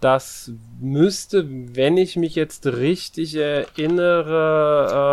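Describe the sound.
Faint keyboard typing clatters in the background while a man talks steadily in the foreground, the quick key taps mostly buried beneath his voice.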